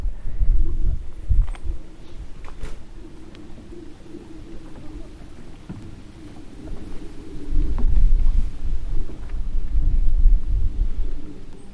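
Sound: distant airplane flying overhead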